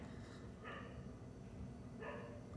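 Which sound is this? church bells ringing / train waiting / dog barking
dog barking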